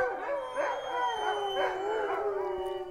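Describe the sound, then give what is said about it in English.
A team of sled dogs howls together in a backyard in Fairbanks, Alaska, several long wavering voices overlapping in a steady, sustained chorus, fairly loud, with no one speaking. “spending time today here in Fairbanks, Alaska, in your gorgeous backyard with your wonderful team”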